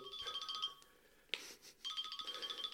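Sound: mobile phone ringtone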